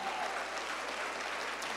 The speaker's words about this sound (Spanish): Den un aplauso fuerte al Señor.